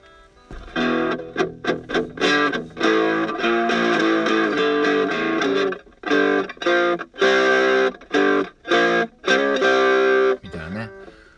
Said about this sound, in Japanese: 一応それなりに歪んだ歪歪むっていうんですけどこのぐしゃっていう音ね